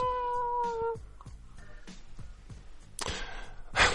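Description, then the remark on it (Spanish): A cat lets out a loud, drawn-out yowling meow for about a second, followed by a series of steady, muffled thumps and a harsh noisy burst near the end. No one speaks. “Y ese horrible maullido nosotros no lo imaginamos.”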